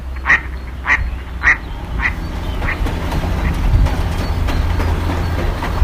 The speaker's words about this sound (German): über ihren Köpfen eine Schar Stockenten zum Sturzflug ansetzt